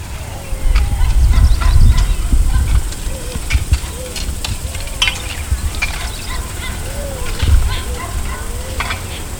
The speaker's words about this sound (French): Quand on s'arrêtait en pleine jungle sur le bord de la route, le contact éteint nous rattrapait quand même le vacarme frissonnant des insectes, des bêtes, du végétal chahuté par les oiseaux, des coups de machette sur le maïs que donnent les paysans.